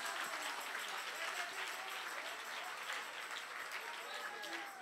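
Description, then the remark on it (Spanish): An audience applauds the Lord steadily for about five seconds, a dense, continuous patter of many hands clapping, with scattered voices mixed into the crowd noise. “Dios, si le va a dar el aplauso al Señor”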